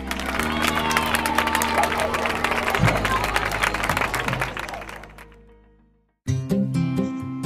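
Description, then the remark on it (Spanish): A burst of applause and cheering from a crowd, dense and loud, fading out over a few seconds before a short silence and then music starting. “Aplauso a tu ingenio y creatividad.”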